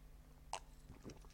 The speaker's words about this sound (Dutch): Even een slokje water.